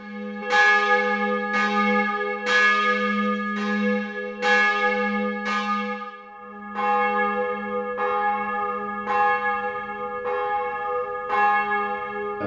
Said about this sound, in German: Wir hören uns das mal an. Sie haben nämlich ganz schöne Audiobeispiele auch auf Ihrer Homepage. Und ein Beispiel, da hören wir, wie die Glocke vorher klingt und wie sie, nachdem eben was verändert wurde, sich dann anhört.